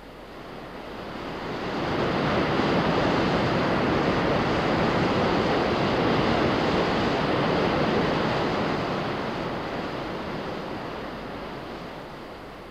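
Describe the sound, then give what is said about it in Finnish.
A dense, continuous roar of rushing river rapids at Imatra, Finland, loud, swelling in over the first couple of seconds, holding steady, then easing slightly toward the end. No voices. “Hotellivieraamme pyrkivät erikoisen mielellään varaamaan juuri koskenpuoleisia huoneita, joiden parvekkeilta he kuutamovalaistuksessa voivat ihailla allavyöryvejä ja vaahtopäitä eikä silloin liene kaukana entisajan romantiikka kosken partailtakaan.”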